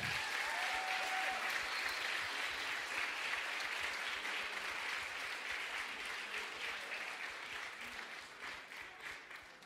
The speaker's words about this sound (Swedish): Men känn er välkomna. Kan vi ge dem en varm applåd igen?